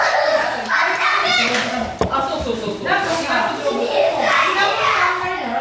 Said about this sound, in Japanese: はいまあ今日のですね収録はどんだけ尺取れるか分かりませんがあのー、ちょっとですね主婦連のバックグラウンドの、はいえー、エンドレストークとですね子供のですね絶叫が混じりながらの収録になりますから